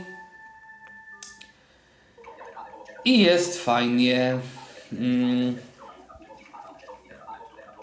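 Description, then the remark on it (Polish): A Samsung phone ringtone rings with steady electronic tones, then a brighter melodic burst, moderately loud, while a person briefly speaks, as a dialed call comes in on the phone. “Jak słychać, telefon Samsung mi dzwoni.”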